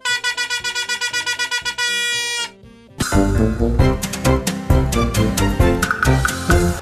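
A loud horn honks in a quick series of short, even blasts, then holds one long note, followed after a brief pause by a dense, blaring burst of brassy tones.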